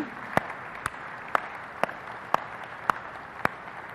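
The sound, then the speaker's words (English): A church audience applauds to honor members for their 20-plus years of commitment to the church, in a steady, dense wash of clapping, with a few sharp, louder claps standing out at an even pace, roughly two per second. No voices come through. “And I know you want to sit down because today you just don't want spotlight and applause, but we just want to acknowledge and honor and thank you for your commitment to this church for 20 plus years”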